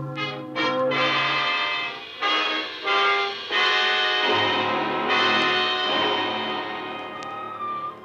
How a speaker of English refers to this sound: Oh, he heard me. It's Sunday morning. Those are wedding bells, darling. Oh. Wedding bells for us.